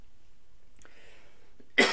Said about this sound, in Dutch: Sorry, moest even hoesten.